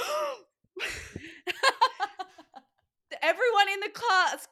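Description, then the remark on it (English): A single voice acts out a crowd's shocked gasp, a sharp breathy intake followed by drawn-out, wavering vocal sounds of dismay, fairly loud. “gasped”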